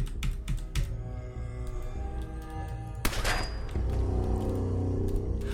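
Keys on a computer keyboard that is not responding clack in quick, uneven bursts, fairly loud, with one heavier jab midway and a low steady hum underneath. No one speaks.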